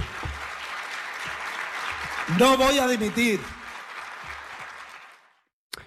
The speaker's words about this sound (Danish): Fem gange kommer han altså op på at sige, jeg trækker mig ikke. Øh, der bliver klappet i baggrunden,